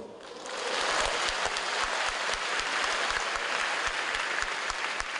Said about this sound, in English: Well, that was at a machine learning conference in China. Uh, it's not often, actually, at academic conferences that you do hear spontaneous applause.